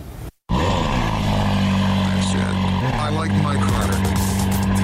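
A loud engine roar drones steadily with a deep, throaty rumble, heard at the 2018 Atlanta International Auto Show. It starts after a brief moment of silence near the beginning and holds strong throughout.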